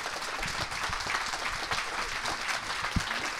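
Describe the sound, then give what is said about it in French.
An audience claps steadily for a few seconds, a dense crackle of many hands at even, moderate loudness, with one sharper clap standing out near the end. “On peut faire un applaudimètre C'est trop tôt, c'est trop tôt.”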